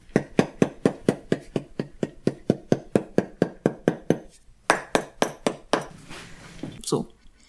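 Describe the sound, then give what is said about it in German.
A fast, steady series of sharp taps, around fifteen in about four seconds, then a few scattered knocks and a scraping rustle as warmed cork, both parts coated with glue, is hammered onto a shoe last. “Ich habe jetzt meinen Kork was erwärmt, der ist eingestrichen, beide Teile, und dann klopfe ich den auf dem Leisten an.”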